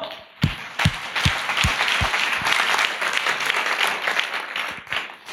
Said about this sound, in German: Gebt euch einen Applaus. Come on!